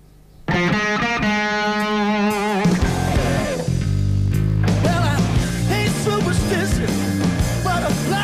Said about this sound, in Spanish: Bueno, todos los viernes pasamos por distintos estilos, eh, pasamos cumbia, pasamos rock and roll, pero siempre traemos algún disco atrapante. Hoy, con mucha distorsión.